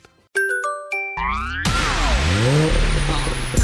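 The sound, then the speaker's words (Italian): A few bright chime notes ring out, then a brand-new car's engine revs up sharply and roars loudly, its pitch climbing and dipping over a dense rush of noise, in a radio advert for DAB+ digital radio. “Auto nuova fiammante col suono nuovo Elda Plus che si sente a tuono”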